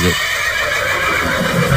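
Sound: horse neighing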